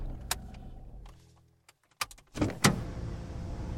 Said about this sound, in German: Einmal über den Main und endet dann kurz vor der hessischen Grenze in Ringheim. Das Auto kommt vor einer Garage zum Stehen.